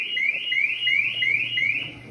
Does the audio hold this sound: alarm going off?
yes